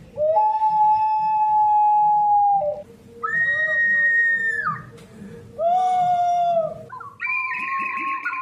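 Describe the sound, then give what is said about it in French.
Whistled shepherd language, a means of communication used in the mountains that imitates birdsong: four loud, piercing whistled phrases, long held tones with rising and falling pitch slides, separated by short pauses over a faint low background rumble. “la langue sifflée des bergers qui est un moyen de communication utilisé euh, dans les montagnes, souvent, euh, qui imite le chant des oiseaux”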